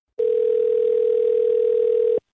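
A steady telephone dial tone, heard as a phone call is being placed, holds one unbroken pitch for about two seconds, then cuts off abruptly. No voices, just the tone at a constant, moderately loud level.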